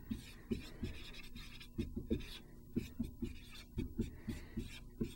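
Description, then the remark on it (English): A pen or marker scratches steadily across a writing surface in short repeated strokes as a teacher writes out a function's domain, with a faint hum underneath and no talking. “Let me write that.”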